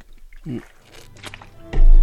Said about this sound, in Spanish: un traguito de agua.